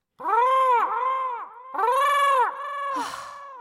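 crow cawing

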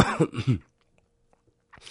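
cough

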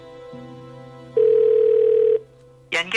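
telephone ringback tone

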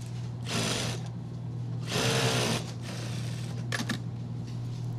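sewing machine running

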